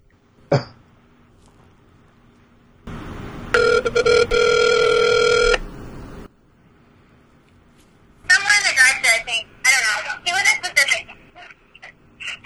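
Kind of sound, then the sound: signal or alarm, outgoing phone call ringing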